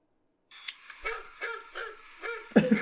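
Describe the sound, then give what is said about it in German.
A dog running past in a cellar is audible in the background, making a series of soft, evenly spaced bursts over a hissy backdrop, with a louder burst of sound right at the end. “da läuft hinter Hund vorbei.”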